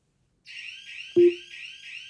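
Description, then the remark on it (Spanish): A shrill, high-pitched home security alarm, set off by a detected intruder in a house, starts abruptly and keeps sounding in a steady, warbling pattern, with one short, loud, low beep cutting in partway through. “Y la alarma suena en este momento.”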